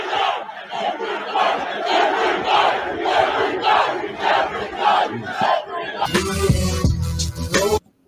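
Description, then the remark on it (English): A large crowd chants loudly in a steady rhythmic pattern for several seconds, then a burst of harsher, brighter noise takes over near the end before cutting off abruptly. “And then you hear them chanting.”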